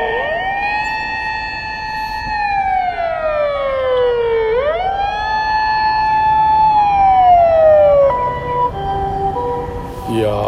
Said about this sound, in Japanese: ここでなんか喋ってるとね絶対救急車通りますね